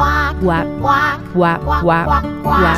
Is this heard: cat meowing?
no